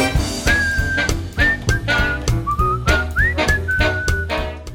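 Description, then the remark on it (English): A clear whistled melody glides and slides between held notes, carried over a full band backing with steady drums and bass, the whistling loud and up front. “Whistle solo.”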